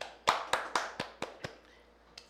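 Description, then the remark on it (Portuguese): A short burst of hand claps, about half a dozen sharp claps in a steady rhythm that fade quickly, as if from one or a few people, with no voices. “uma salva de palmas para ele.”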